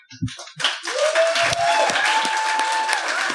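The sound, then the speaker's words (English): An audience breaks into applause for two speakers after a brief tap or two, the clapping swelling quickly into a dense, steady wash that holds at an even level, with a faint sustained tone running through it. “So we're going to have to cut it there, but Round of applause for these two wonderful people.”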